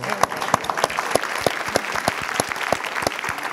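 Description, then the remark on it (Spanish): A group applauds steadily for Teo, with dense overlapping hand claps and a few sharper, louder claps standing out across the whole stretch at a moderate volume. “Un aplauso para Teo.”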